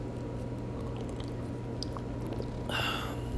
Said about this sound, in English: drinking some uh, coconut water here to soothe the throat.